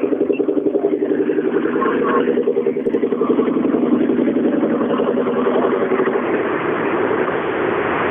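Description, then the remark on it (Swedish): Christian's rally car drives on with a loud, steady engine drone, while a fast, regular thumping pulse from its punctured, shredded right front tyre beats through the sound for several seconds. “Ja, då är det punktering.”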